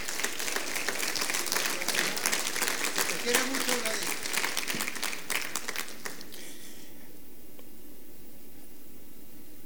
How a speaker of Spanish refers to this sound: ¿Qué tal si le dan un fuerte aplauso al Señor y ustedes mismos?